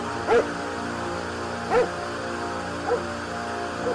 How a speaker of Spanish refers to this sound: Este maldito perro no se calla, la tele no funciona.